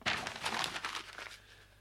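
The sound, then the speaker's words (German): Paper being crumpled: a quick flurry of dry, crackling crinkles over about a second and a half, gradually easing off into a faint rustle. No voices. “Das Papier ist falsch.”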